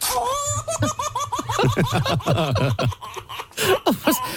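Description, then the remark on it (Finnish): A baby laughs in a run of bright, high-pitched bursts, rising into rapid rhythmic giggles and trailing off with a few final squeals, fairly loud. “Se vauvan nauru.”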